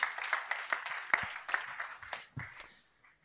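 Audience applause, a dense patter of many hands clapping at a steady, moderate level, with a few sharper claps standing out before it thins and fades away near the end.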